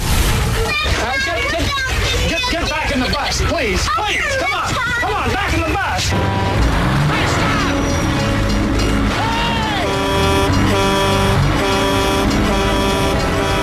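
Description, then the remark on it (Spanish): A truck horn blares in long, sustained tones over a dense, loud mix of engine noise and crowd-like voices in a film's original trailer, the horn standing out more clearly in the second half. “Ese claxon que suena de fondo en el tráiler original, en versión original de la película, se te acaba metiendo en el cerebro y en el alma y en la barriga y en la vida.”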